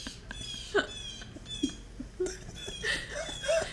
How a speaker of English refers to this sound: Are those your birds? There's a songbird.